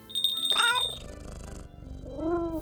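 A domestic cat meows twice, a short, higher call followed by a softer, rising meow, with a faint steady high tone and low rumbling noise in the background.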